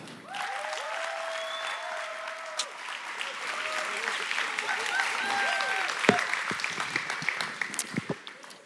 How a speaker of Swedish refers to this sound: Eh, men vi välkomnar henne med en applåd tycker jag.